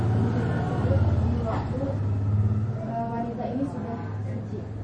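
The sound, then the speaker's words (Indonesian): A motorcycle engine rumbles steadily, its low droning tone rising and falling slightly as it passes, with indistinct talking mixed in over the noise. “coba diulang dulu tadi tadi ada suara motor”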